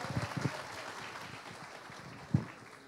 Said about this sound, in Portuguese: Dê um aplauso ao Espírito Santo.